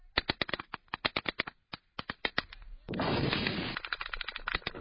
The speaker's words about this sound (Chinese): 哈马斯民兵采取打来跑战术，偷袭以色列正规军。四周响起阵阵枪声。